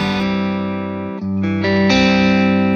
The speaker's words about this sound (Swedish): Jag tänker också så här, den heter ju Dynamic Distortion och jag vet inte om det innebär att man ska kunna spela lite anslagskänsligt eh, eh, eller ha mycket olika spann på volymkontrollen. Ja, den cleanar upp ganska snyggt va?